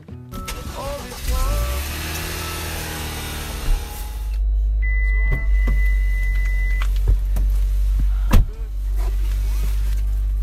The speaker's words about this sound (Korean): 제법 근사한 자동차를 몰고 다니는데요.